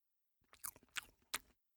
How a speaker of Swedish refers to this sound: Ska jag smaska lite mer bananen? Ja, gör det.